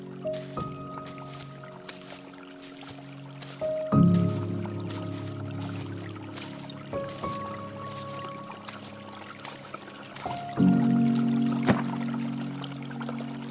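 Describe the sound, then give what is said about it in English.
Someone drinks water from a creek in several wet slurping gulps spaced a few seconds apart, with drips and splashes between them and soft sustained tones humming underneath. “I bend down and drink.”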